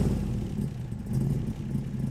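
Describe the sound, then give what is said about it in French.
A steady engine rumbles continuously, a loud low drone with slight fluctuations in intensity and a faint clattering texture, with no voices. “M'apercevant, il se redresse, passe subitement de l'attention soutenue à la détente tranquille, me montre le vestiaire et hurle pour couvrir le bruit du moteur Passe ton bleu”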